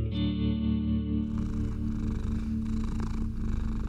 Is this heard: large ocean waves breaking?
no